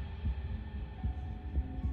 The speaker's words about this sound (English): leaving you alone and scared, your heart now thumping in your chest like a jackhammer.